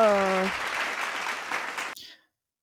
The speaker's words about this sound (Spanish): Eh, aplauso, aplauso.